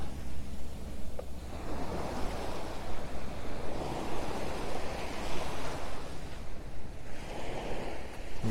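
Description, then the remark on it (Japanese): Ocean waves break steadily on a beach at Hayama, Japan, at dusk around 6:20 pm, in a continuous, rolling wash of surf, with swells rising and receding and a light breath of wind, no voices present. “夕暮れどきの一番キレイに海が輝く時間帯に、波音をお届け。”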